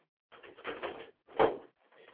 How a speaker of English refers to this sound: All right, y'all. Let me see. Let me get this door locked up.